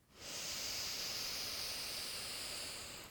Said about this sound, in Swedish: Och för att landa lite till, låt oss börja med ett djupt andetag in genom näsan, fyller upp magen med luft. Suckar ut genom munnen. Andas in, fyller upp.